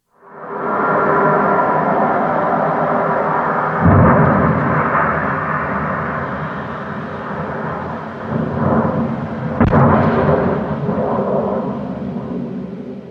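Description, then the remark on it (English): A SpaceX Starship prototype rocket roars during an early failed test with a loud, continuous rumbling blast, broken by two sharp explosive bursts about six seconds apart, then keeps thundering heavily. No voices. “What you just heard was an early failed test of a Starship prototype.”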